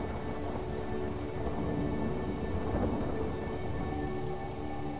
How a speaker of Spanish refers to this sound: Una vez más la tormenta vino a hacer su trabajo perfecto.